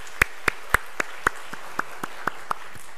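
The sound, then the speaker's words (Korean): A church audience claps together in a steady, even rhythm to encourage a deacon and his wife, about a dozen sharp claps in a row that soften slightly toward the end, with no talking over them. “뒤로 한번 보시고 두 분 같이 한번 같이 한번 인사해 박수로 한번 같이 한번 격려하도록”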